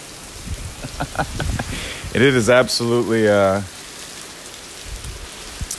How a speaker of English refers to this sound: Torrential. Yeah, it is a uh, 100 percent damp out there. It is 100 percent coming down